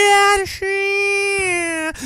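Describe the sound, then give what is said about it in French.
A voice mimics whiny, crying-style singing with two long, held wailing notes separated by a quick breath. It is loud, with another short breath at the end. “Moi, quand ça pleure, là.”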